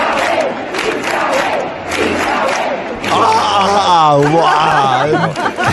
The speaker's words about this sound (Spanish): O sea, gente ahí haciendo la coreación. ¡Guau! Con las carpantas. Es que era súper bonito, ¿sabes?